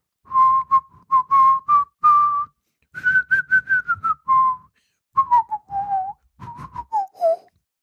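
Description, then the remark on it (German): A person whistles a short, wavering melody in several phrases with brief pauses between them, fairly loud, with no talking over it. “du kannst La Paloma pfeifen, das wäre auf jeden Fall ganz lustig”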